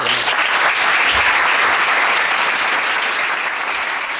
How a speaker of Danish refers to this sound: Nu har jeg tænkt mig at gå op og introducere aftenens gæst. Hvis I lige klapper imens, så er det fedt